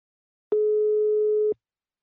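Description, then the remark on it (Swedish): A single steady telephone ringback tone while placing a phone call to a business partner company, a clear, even beep lasting about a second before cutting off abruptly, heard alone with no talking. “Nu tar vi en kort paus och ringer upp min samarbetspartner Invacare.”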